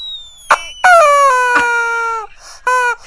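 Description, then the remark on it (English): A dog's rubber chicken toy, squeezed by hand, lets out two loud, honking squeals like a crying baby, a long wailing one then a shorter one, with a brief squeaky chirp before them and soft clicks between. “This is my dog's chicken. He he loves this toy.”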